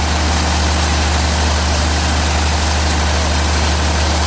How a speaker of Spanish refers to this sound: Justo al lado varios camarotes y si seguíamos por ese mismo pasillo te encontrabas con la sala de máquinas, claro, y el sonido del generador.